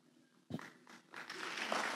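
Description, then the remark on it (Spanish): Applause for the Lord during a church service starts with a few scattered claps, then swells into steady, dense clapping from many hands that keeps growing louder to the end. “Si le va a dar el aplauso al Señor, hágalo con ganas, no amaguen.”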